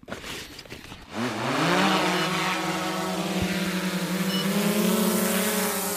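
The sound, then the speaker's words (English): After a brief low rumble, a drone's motors spin up sharply into a loud, steady high-pitched buzzing whine that holds for several seconds as it lifts off from a high point on an island for a test flight. “we're going to launch it from here”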